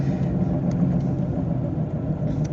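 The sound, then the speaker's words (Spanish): A sewer-unclogging vacuum truck rumbles steadily as it passes on the road, a deep continuous engine drone with a faint rise in revving. “Acabo de pasar una pipa de esas que destapan, a ver si no está inundado y me quedo y este podcast nos va a durar tres semanas.”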